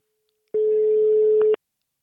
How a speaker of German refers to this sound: Es läutet.